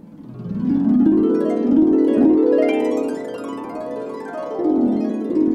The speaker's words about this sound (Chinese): 没有凶猛的吼叫声。这次出现的是竖琴声。